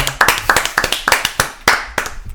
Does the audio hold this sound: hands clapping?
yes